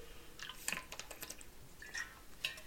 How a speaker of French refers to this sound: Une petite gorgée d'eau, ça va toujours aider.